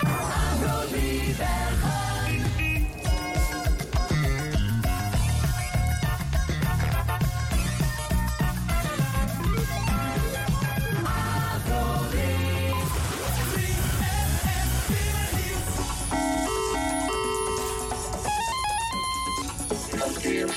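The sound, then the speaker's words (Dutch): A loud, continuous run of bright radio traffic-information jingles, with chiming electronic tones and punchy musical stingers following one another without pause and no talking. “Maar, maar het leek ons aardig om daarom even dat generieke ding verkeersinformatie ook maar eens even in een jingleblokje te gieten.”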